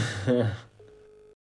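A brief rustling burst, then a single steady ringback tone from a telephone line, about half a second long, as a phone-a-friend call is placed on Wer wird Millionär, sounding clearly before cutting off into silence.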